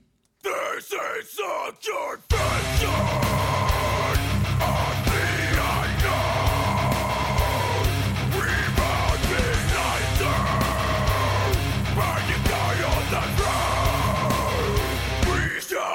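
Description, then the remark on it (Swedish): A loud, dense recording by a one-man band with a hired singer: harsh shouted vocals over distorted guitars and pounding drums, kicking in after a couple of seconds of ragged vocal bursts and continuing at full intensity. “Det här är ju en genre jag inte alls förstår. Tyvärr. Caps, sång och Cubase-gitarrer det är inte min grej.”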